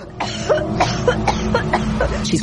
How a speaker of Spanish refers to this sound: En ese momento, mi tía empezó a toser de nuevo.